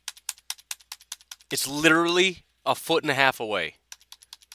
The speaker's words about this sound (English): Nope. Hear that? That's the sound of the keyboard not working.